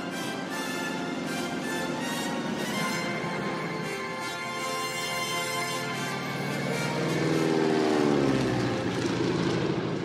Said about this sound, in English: there's the plane.